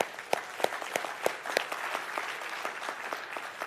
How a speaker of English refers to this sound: And we have the, the CEO of the Baptist Union of Uganda right here. And uh, God has given us a gift. Come on, clap one more time for Him.